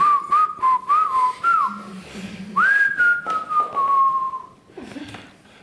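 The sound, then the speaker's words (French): A person whistles a short, wandering melody, with gliding notes and a long sustained tone in the middle, then trails off near the end. “Quand c'est que je peux siffler”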